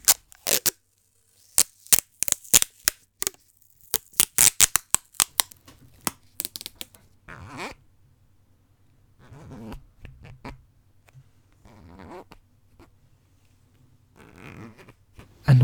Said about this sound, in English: You wake up, you're only half conscious, but you hear that someone is tying you up with tape and zip ties.